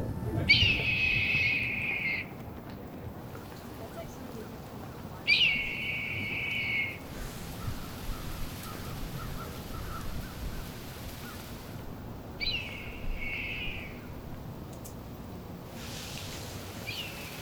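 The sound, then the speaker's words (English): A red-tailed hawk over town on a fall day gives three drawn-out, high screaming calls spaced several seconds apart, ringing out over a steady wash of town noise, with no one talking. “You've been listening to a hawk over town on a fall day. I think it's a red tail, but if you're a bird person, feel free to correct me.”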